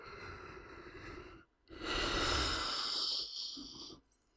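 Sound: yawn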